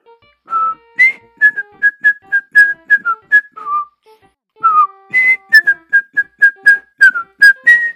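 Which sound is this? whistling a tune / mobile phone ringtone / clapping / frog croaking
whistling a tune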